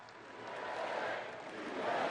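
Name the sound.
crowd cheering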